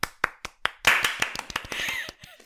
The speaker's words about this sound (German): An dieser Stelle würde ich gerne noch einen kurzen Applaus für alle Gewinner und Gewinnerinnen einblenden.